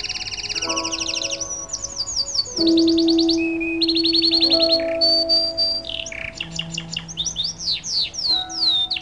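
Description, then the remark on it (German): Zebra finches chirp busily in a group, a dense, overlapping flurry of high, rapid tweets and buzzy calls, several birds at once, fairly loud with no talking. “Auch sorgt sie wahrscheinlich für einen besseren Zusammenhalt in der Vogelfamilie und ermöglicht komplexes Gezwitscher in der Gruppe.”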